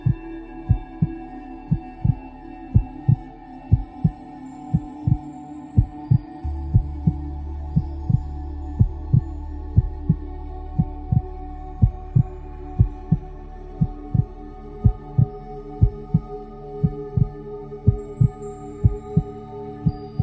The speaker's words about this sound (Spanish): Escucha tu corazón, siente cómo cada latido te llena de vida.